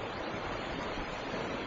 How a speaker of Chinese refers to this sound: 汹涌翻腾的河水将救生筏抛上抛下，头盔上的灯光几乎无法照透昏暗的山洞。